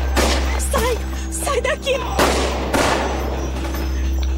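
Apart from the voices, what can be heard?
gunfire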